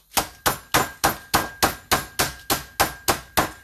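Twelve sharp, steady thuds as chicken breast is pounded a little flat to an even thickness in a plastic freezer bag, each blow landing at an even, brisk pace, fairly loud with no talking.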